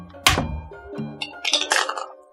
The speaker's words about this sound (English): I'm gonna roll this dice around. I've been rolling poorly.